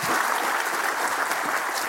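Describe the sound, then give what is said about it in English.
A crowd claps for the panelists at the end of a rapid-fire question round, a dense, continuous burst of applause, loud and sustained throughout with no voices standing out. “Big uh, round of applause for these guys, if I could.”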